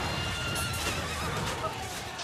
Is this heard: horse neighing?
yes